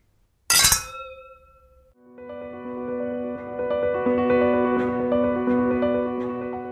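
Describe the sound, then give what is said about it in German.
A single bright clink of glasses in a toast rings out near the start, its tones fading quickly, before soft layered music rises and continues steadily to the end. No voices are heard. “Auf Jana. Auf uns alle. Und auf die Musik.”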